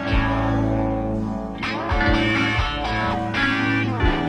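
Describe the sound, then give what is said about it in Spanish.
A warm Wurlitzer electric piano plays sustained chords while an electric guitar joins with effected, slightly distorted tones, the two instruments blending steadily and loudly with no voices present. “Un poco de Burlitzer. Si le sumamos la guitarra.”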